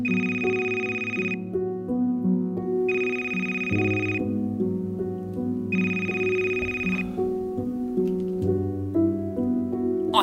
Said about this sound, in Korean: 어느 날 새벽 1시쯤 한 통의 전화를 받게 됩니다.